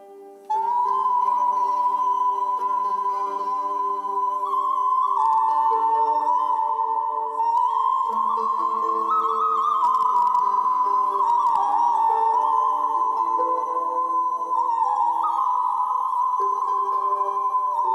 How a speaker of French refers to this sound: Pour le mécanisme 3, que l'on appelle également voix de sifflet, la voix est tellement aiguë qu'on a l'impression d'entendre un sifflet.